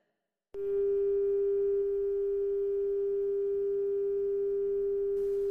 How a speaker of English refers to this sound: brought out on the table is the lone traveler, a dial tone ominously sputtering from the landline still in his hand and blood pooling around his head.